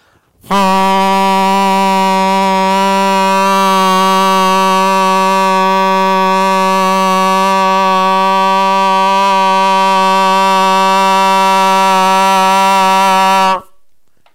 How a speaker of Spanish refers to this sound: Y de repente suena la trompeta.